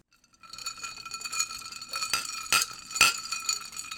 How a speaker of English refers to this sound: Cheers. Our glasses are banging.